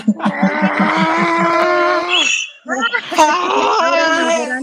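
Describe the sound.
A drawn-out, theatrical wailing scream from a single voice, loud, holding a strained pitch for about two seconds, breaking off briefly, then rising again into a second quavering wail.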